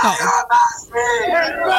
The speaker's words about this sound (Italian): E eh beh, questo è il, il, coro che insomma ci portiamo dietro eh, con grande piacere da, dal 25 maggio.